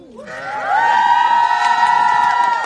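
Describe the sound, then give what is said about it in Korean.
A big crowd of fans, the fandom Melody, lets out high-pitched screams and cheers, swelling up within the first half second and holding loud and steady until the end, with no talking. Played as a sound effect. “효과음은 멜로디의 함성 소리.”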